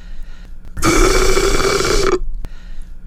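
A single loud slurping sip of iced coffee from a big glass through a paper straw, a raspy, gurgling rush of air and liquid with a low steady hum, lasting about a second and a half, followed by a brief click.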